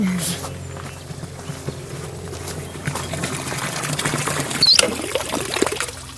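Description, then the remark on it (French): Water runs steadily from a tap with a hissing, splashing flow, then a sharp knock near the end as it's shut off, with faint voices and movement in the background. “Juste fermer l'eau.”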